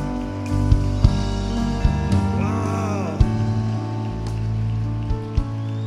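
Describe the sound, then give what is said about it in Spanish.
A church audience applauds people who have come forward to be welcomed into the kingdom of heaven, a dense, steady patter of many hands clapping with a few sharper claps standing out, held over a sustained musical tone that plays underneath. “Vamos, denle un fuerte aplauso, iglesia, a ellos.”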